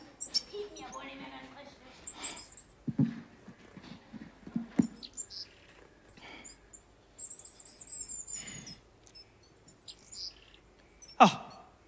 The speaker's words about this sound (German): Dieses ganze Vogelgezwitscher, es ist so penetrant. Dürfen die das noch um die Uhrzeit?